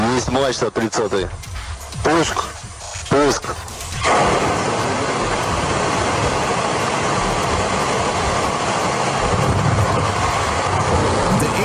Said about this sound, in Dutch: Ook bijzonder nieuws uit hashtag Rusland, want daar werd vannacht maanlander Luna 25 gelanceerd. Dat klonk zo.